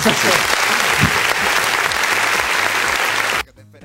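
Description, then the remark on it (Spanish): Steady audience applause for a young man, a dense wash of clapping at a fairly loud level for about three and a half seconds, with faint voices underneath, then cutting off abruptly into quiet. “Un aplauso al muchacho, ¿no?”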